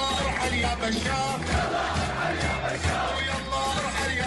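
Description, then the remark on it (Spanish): A large Syrian protest crowd chants a protest slogan from the city of Hama in unison, a dense, loud wall of many voices with rhythmic swells and shouts, continuous throughout without any single speaker standing out. “Según los residentes de la zona, las fuerzas del ejército sirio lo habrían arrestado, lo degollaron y le cortaron las cuerdas vocales por haber inventado esta arenga que escuchamos de fondo.”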